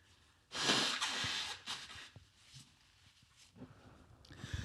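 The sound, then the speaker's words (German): Someone blows their nose: a loud, long honking burst of air followed by a couple of shorter, weaker blows, then quiet sniffling and rustling. “ich muss mir nochmal die Nase putzen.”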